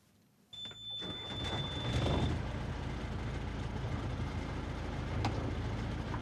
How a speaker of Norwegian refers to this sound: Stor motor, mange hestekrefter, høy fart. Den stivskroga oppblåsbare båten av typen ribb er av de mest populære fritidsbåtene langs kysten.